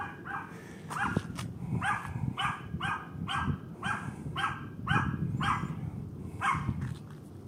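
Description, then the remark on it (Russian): A dog walking by at night barks repeatedly in quick, fairly regular bursts, about a dozen sharp yaps over several seconds, moderately loud, with low background rumble and no speech. “Тоже вот проблема, да, это собаководов.”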